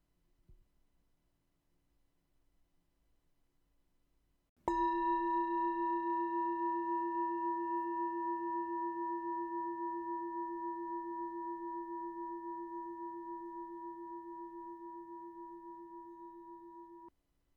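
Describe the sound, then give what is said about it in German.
A single meditation gong is struck once after a brief quiet moment, then rings with a steady, pure tone that slowly fades over more than ten seconds, signalling the end of a meditation. “Und wenn du den Gong hörst, öffnest du deine Augen wieder.”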